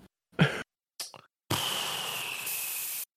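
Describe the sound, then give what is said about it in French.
A voice imitates the failing engines of the Alpine cars: two short, rough sputtering bursts followed by a long, steady hissing exhale, fairly loud, with no other talking. “C'est à peu près ça, c'est le bruit qu'a fait le mot les moteurs.”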